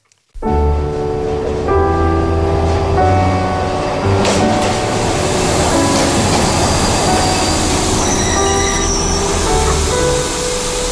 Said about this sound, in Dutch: In augustus 1945 kwam een trein aan op het Centraal Station in Amsterdam.